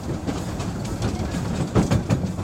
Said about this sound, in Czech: Ale co už, pětice je ve vlaku a kodrcá se na sever.